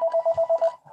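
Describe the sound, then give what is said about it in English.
A phone rings in a quick series of six bright, evenly spaced electronic pulses, fairly loud, then cuts off, leaving faint background noise. “Sorry, that's my phone.”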